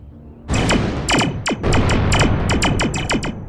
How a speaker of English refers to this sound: Well, that's not good. Is that blaster fire I hear?